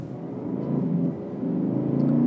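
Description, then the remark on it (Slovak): A car engine drones loudly from inside the cabin, which has had all its sound-deadening material stripped out while the exhaust is unmodified; a deep harmonic rumble that swells as the revs climb, dips briefly, then builds again toward the end, with no talking. “Lebo nie, že by spravili niečo s výfukom, ale hmm. vyrúbali odtiaľ všetky tlmiace materiály.”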